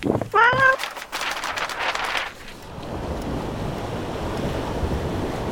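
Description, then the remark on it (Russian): Steady roar of grey Pacific Ocean surf washing against a rocky shore of the Commander Islands under clouds, loud and continuous, with a brief high wailing call near the start and bursts of crashing water before settling into a constant wash. “А, скалы, тучи, Море серое, неприветливое Совсем не похоже на Мадагаскар Это, ребятки, Командорские острова”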